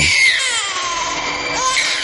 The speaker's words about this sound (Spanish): bebé llora y María se gira rápidamente recordando a su hijo.